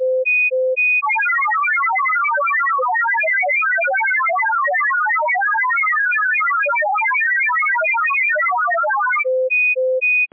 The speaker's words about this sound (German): Und weil ich es so schön finde, verabschiede ich mich diesmal mit meinem Rufzeichen in der Betriebsart Olivia.